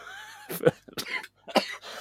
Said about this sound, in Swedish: Oj, nu hostade jag.